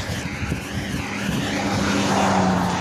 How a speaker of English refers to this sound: Oh, and this car is coming by. Let the car go by.